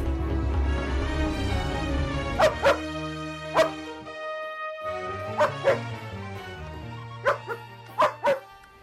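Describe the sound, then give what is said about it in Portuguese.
A police dog barks sharply about eight times, in singles and quick pairs, loudly, over a steady orchestral music bed with no talking, in a scene from the film Agentache, acting alongside Isabelle Huppert. “Um cão polícia contracena com Isabel e o Huppert.”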